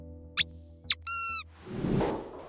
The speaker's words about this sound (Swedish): Hundar gillar ljudet av pipande tuggleksaker för det påminner om ljudet när ett litet djur skriker av smärta.